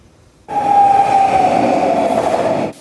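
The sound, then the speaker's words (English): A SkyTrain metro train at the Commercial-Broadway station rumbles loudly and steadily for a couple of seconds, with a high electric whine over the noise, then cuts off abruptly. No one speaks. “Trains at the Broadway station are going to pull into a whole new reality this weekend.”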